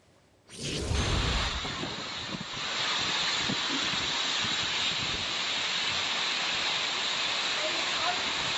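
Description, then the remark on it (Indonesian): A sudden, steady roar of heavy rain with whirlwind winds hitting a residential area in Talisayan, Berau, East Kalimantan, Indonesia, kicks in and stays loud throughout, with strong wind buffeting the microphone in a rumbling gust early on. “Inilah video amatir yang memperlihatkan hujan deras disertai angin kencang menerjang permukiman di Kecamatan Talisayan, Berau, Senin kemarin.”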